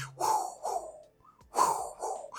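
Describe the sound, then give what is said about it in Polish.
A voice imitates the sweeping hum of a red scanner light on a car's front, with two pairs of breathy, whooshing swells, fairly loud, and no words spoken. “Niech używają tych LEDów, ale niech ktoś wreszcie zrobi czerwony skaner z przodu samochodu.”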